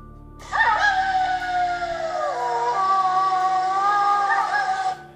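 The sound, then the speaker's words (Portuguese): A person imitates a wolf howling: one long, loud, drawn-out wail of about four and a half seconds, sliding slowly down in pitch and then rising again near the end. “O lobo uivou.”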